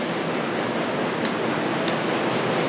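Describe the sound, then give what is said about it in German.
A water wheel, part of machinery built around 1800, turns amid loud, steady rushing water that fills the whole scene, with two faint brief knocks cutting through the constant roar; its axle drives cranks that move beams above. No voices. “wenn man zuerst auf die rechte Seite guckt, da, da, da sehen Sie das Wasserrad im Hintergrund.”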